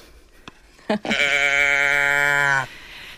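A toy cow moo, one sustained buzzy tone lasting about a second and a half, fairly loud, preceded by a couple of handling clicks, with no talking.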